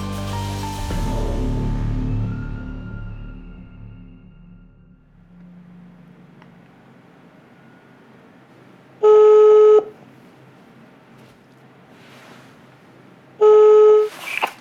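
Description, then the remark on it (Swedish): A phone line ringing tone sounds twice, two steady, loud electronic buzzes about four seconds apart, after a brief clatter that fades into quiet hiss, as a call is placed from a mobile phone to Henkes grill. “Via Google hittar jag numret till Henkes grill och med skakiga fingrar slår jag in det i min telefon och klickar på den gröna luren.”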